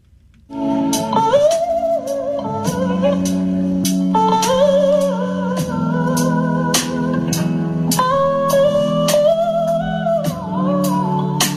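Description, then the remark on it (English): An electric guitar, played to sound like a human singing, plays a smooth, sliding melody that bends and sustains like a singing voice, backed by a steady beat with sharp drum hits throughout. Loud and continuous, with no talking. “I just found this: a guy can make his guitar sound like a human when he plays it.”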